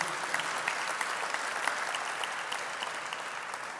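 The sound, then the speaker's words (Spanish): An audience at the Grupo Unidad church in Tijuana applauds steadily, a dense patter of many hands clapping at an even level for a few seconds with no voices over it. “Den un aplauso a la iglesia.”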